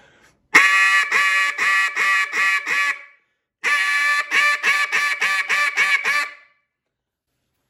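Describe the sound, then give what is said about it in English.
A double reed duck call blows a loud high ball call: two runs of six or seven rapid, raspy quacks separated by a short pause, with no talking. “And um, I mean, you can, with the neat thing about the range of our calls, we can do a, a high ball”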